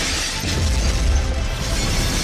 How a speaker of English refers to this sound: Just then, there was a loud explosion in Morris's lab.